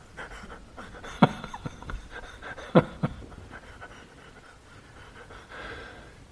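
Quick, rhythmic panting breaths, a steady run of short huffs with a couple of sharper, louder exhalations, fading to quieter breathing at the end. No one speaks.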